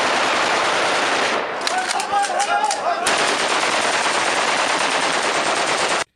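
Gunshots from bird hunters' guns shooting at birds crackle in a loud, dense, continuous volley of rapid shots, with a short stretch of sharper separate bangs and muffled voices partway through.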